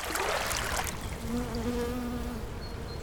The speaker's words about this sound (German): Doch, doch, aber die Bienen machen mir Angst.